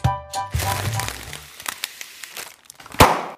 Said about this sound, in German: Das war der Knall einer Butterbrotpapiertüte. Ja, wenn die platzt, dann klingt es so. Für uns vielleicht erstmal Lärm, aber Lärm, das sind auch Schallwellen.